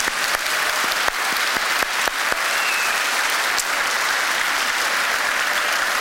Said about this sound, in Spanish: Un aplauso fuerte a Cristo Jesús. Amén.